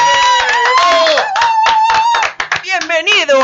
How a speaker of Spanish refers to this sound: Bien, un aplauso para él.